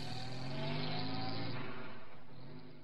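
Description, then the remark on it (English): A car engine hums loudly, its pitch rising as it accelerates and pulls away, the sound easing off slightly at the end. No voices. “And uh, he'd get in the car and we'd drive off.”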